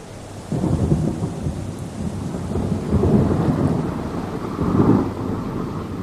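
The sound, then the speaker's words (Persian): Deep rolling thunder rumbles continuously over steady heavy rain, swelling in loud surges around the middle and near the end, with no voices present. “سوگند به آن ابرها که بار سنگینی از باران را با خود حمل می کنند”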